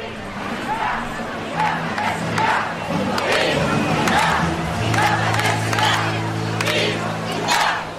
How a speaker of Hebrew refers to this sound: אז הם צועקים את המשפט הגדרה עצמית אינה פשע, צריך להגיד, לא היה שם, אה, אה, אלו לא מחאות אלימות, המחאות בסופו של דבר עברו בשלום.